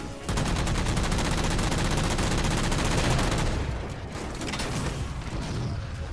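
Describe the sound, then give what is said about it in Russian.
Rapid automatic video-game gunfire rattles in a dense, steady burst for about three seconds, then gives way to quieter, scattered shots and clattering impacts, with no talking; the player is shooting at doors to destroy them. “Двери надо разрушать, говорят. Ну попробуй пострелять.”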